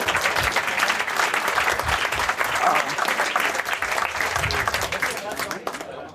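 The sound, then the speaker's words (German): An audience breaks into sustained applause, a dense, steady wash of many hands clapping at an even level for several seconds before it begins to thin out at the end. “Dafür einen großen Applaus und ich darf dich hier nach vorne bitten.”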